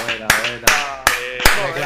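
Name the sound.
applause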